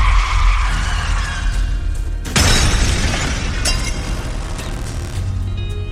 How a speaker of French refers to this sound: Henri freine brutalement, faisant voler une arme à feu à travers la voiture.